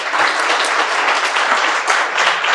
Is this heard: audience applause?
yes